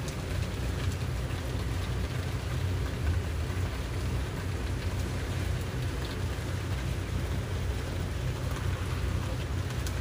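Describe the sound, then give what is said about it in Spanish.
Steady, dense rainfall fills the whole stretch with an even hiss and a heavy low rumble of distant thunder underneath, constant in level and without a break, with no voices. “Y suavemente pasa de enfocarte en tu respiración a enfocarte en el sonido de la lluvia.”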